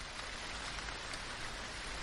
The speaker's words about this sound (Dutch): Wow, het regent. Nou ja, dan spoelen we lekker schoon.